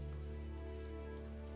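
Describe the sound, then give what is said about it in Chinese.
Raindrops from the roof of a gatehouse patter on an open umbrella held by Teacher Yang in a soft, steady wash, with a few individual drops standing out now and then over a low, even hum. No one speaks. “传达室房顶上的雨滴落在了杨老师撑开的伞上，一滴一滴，很响。”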